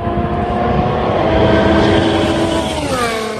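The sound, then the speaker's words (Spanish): An Aston Martin Formula 1 car engine roars loudly and steadily on track, a dense high-pitched whine whose pitch bends and shifts near the end, as if passing by. No voices. “vamos a escuchar un clásico del partidazo, el sonido del Aston Martin probándole sirve”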